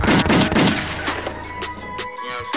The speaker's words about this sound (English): Where are my gunshots?